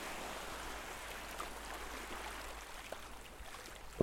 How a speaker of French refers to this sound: Pas de vent. Pas de houle. Seul le crissement des vagues sur le sable. Parfois, le roulement des galets.